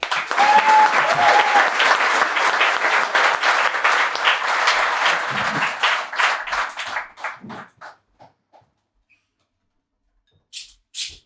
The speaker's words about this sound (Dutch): Ik vind het eigenlijk heel tof dat hij hier is. En dat hij ons wil roosten. Dus geef hem een keihard applaus.